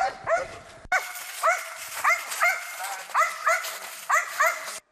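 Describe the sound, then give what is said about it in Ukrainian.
A military dog barks loudly and repeatedly during attack training, in a steady run of sharp, agitated barks with brief gaps, some coming in quick pairs, against a noisy outdoor background. “Забрати собаку від цілі може тільки провідник, і то не усними командами, а буквально відтягнувши від враженого противника.”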